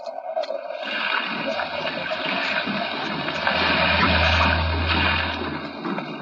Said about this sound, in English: Unfortunately, Mr. Bartell, I'm not much of a sailor, and as the wind was blowing hard and the sea racing, I'm afraid I wasn't a very intelligent companion.